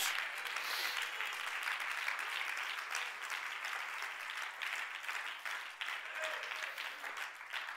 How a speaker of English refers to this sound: When you put your hands together, let heaven hear it.